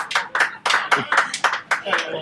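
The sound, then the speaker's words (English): People outside high fiving and cheering Ed Miliband: a run of about nine sharp, bright hand slaps in quick, uneven succession, loud and crisp, mixed with excited voices. “there are some people outside with us, and they're clearly and they're high fiving now. They're cheering Ed Miliband.”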